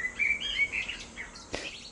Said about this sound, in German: Ist das dein Wecker? Nee, ist dein Wecker. Warum soll mein Wecker um die Uhrzeit klingeln?